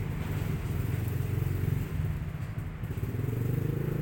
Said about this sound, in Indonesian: ramai juga ya motor ke situ